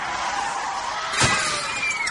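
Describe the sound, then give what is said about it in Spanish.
A car crash sound effect depicting a car running over a child: steady road and engine noise with a high tire screech, then a single heavy thud of impact midway, loud, with no talking. “Un carro atropelló a mi hijito mayor.”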